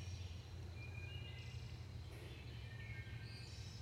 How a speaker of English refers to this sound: How many people and animals have walked through these woods all these years? And the birds keep chirping.